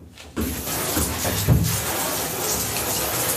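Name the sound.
warm water running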